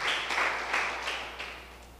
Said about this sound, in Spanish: ¿Cuánto le dan un aplauso a su Señor y Salvador? Amén.